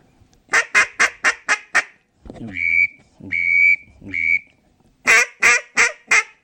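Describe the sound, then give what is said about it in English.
A duck whistle call, kept on a lanyard, is blown: a quick run of sharp chirping toots, three longer steady whistled notes, then another fast burst of short chirps. No talking. “but like I personally always have a whistle on my lanyard, um, and a lot of times, especially if ducks are tough that day,”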